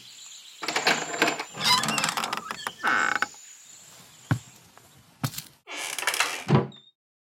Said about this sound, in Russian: Убеждая себя, открываю дверь.